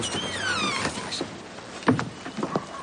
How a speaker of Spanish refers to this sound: La puerta de la casa se abre.